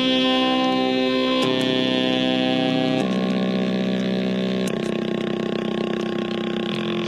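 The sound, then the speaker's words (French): A stepper motor whirs out a slow melody, its buzzy electric tone stepping through a few sustained pitches one after another, loud with no voices. “C'est un moteur. Ouais, ce qu'on appelle un moteur pas à pas.”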